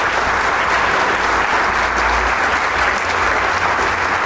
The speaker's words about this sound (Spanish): aplauso bien correspondido. No es que nuestro público lagunero es tan cálido que aplaude cada vez que escucha un silencio porque le encanta su camerata de Coahuila.